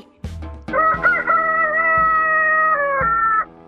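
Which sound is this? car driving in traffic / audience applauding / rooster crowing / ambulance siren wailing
rooster crowing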